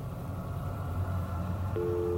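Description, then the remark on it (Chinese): A steady electronic ringback tone from a redialled phone call that no one answers starts near the end over a continuous low rumbling hum. No one speaks. “我又播了一遍，还是没有人接。”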